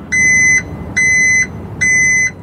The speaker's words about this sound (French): Eh oui, c'est un camion qui ah, recule. Le camion de recul.